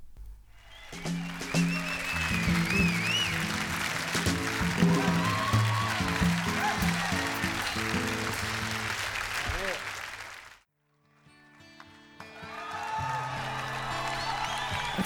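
A live concert crowd on an album recording roars, cheers and whistles loudly over ringing chords for about ten seconds, then the noise cuts out briefly before the music resumes with quieter crowd sound.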